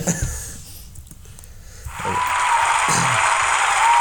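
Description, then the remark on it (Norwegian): After a couple of quiet seconds with faint breathy sounds, an audience breaks into cheering, a dense, loud, steady roar of crowd noise that holds to the end. “Publikum heier for deg.”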